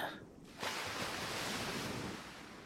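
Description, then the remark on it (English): Ocean waves crash in a broad, roaring surge after a brief lull, the rushing wash of surf filling the scene loudly, with no voices. “The poor beast was caught by a tall wave, forced under, and drowned.”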